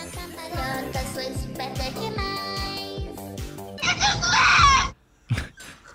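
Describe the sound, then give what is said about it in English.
A song plays with a steady, pounding low drum beat under layered instruments, swelling into a loud, harsh, screechy burst near the end before abruptly cutting off. “song's horrible.”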